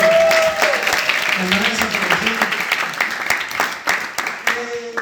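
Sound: audience applause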